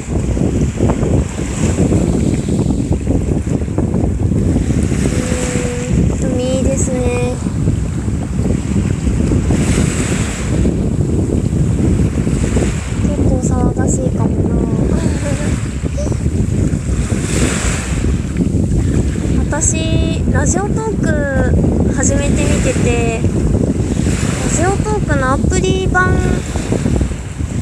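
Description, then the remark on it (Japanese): Strong wind roars across the microphone over steady crashing ocean waves, which are rougher than usual because of the wind, a loud continuous rush throughout, with faint bird-like chirps and whistles cutting through now and then. “ちょっとだけやっぱ風が強いから今日は波がザブザブいつもよりしてる気がします騒がしい感じですねああ、ちょっと風がすごい強いこんな音になっちゃってるんだろう”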